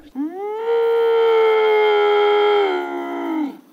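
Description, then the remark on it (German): A lynx gives a single long, drawn-out mewing yowl, loud, rising at the start, holding a steady wailing pitch for about three seconds, then dipping and fading out. “Also so klingt der wirklich, der maunzt und grunzt, ganz komisch.”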